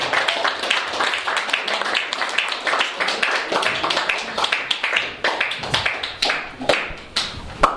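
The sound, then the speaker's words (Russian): An audience applauds steadily for several seconds, a dense, continuous patter of many hands clapping at once with sharper individual claps standing out, fairly loud and with no talking over it. “Охота с ними поговорить изначально, но так как я ведущий, давайте просто покажем своими аплодисментами, как мы рады и как нам действительно”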